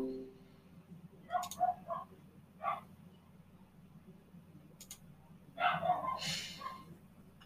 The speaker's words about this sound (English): Sorry about the dogs.